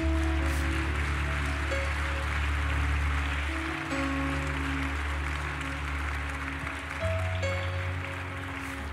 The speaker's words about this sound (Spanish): ¿Por qué no le das un fuerte aplauso a los que han pasado aquí?